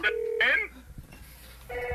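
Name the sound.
telephone ringing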